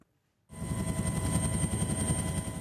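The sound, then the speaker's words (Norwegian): A rescue helicopter roars after a brief silence, its rotor throbbing in a steady, rapid pulse over a loud mechanical whine that holds for a couple of seconds, as rescue helicopters winch passengers one by one from the burning ferry Norman Atlantic in the Strait of Otranto between Italy and Albania. “Uten pause har redningshelikoptrene vinsja opp én og én passasjer fra det brennende skipet, til sammen 427 stykker.”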